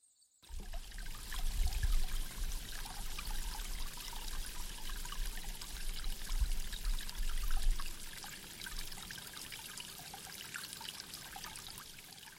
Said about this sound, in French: Alors nous nous sommes posés près d'une rivière,